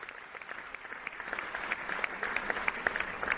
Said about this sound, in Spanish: Máis aplausos.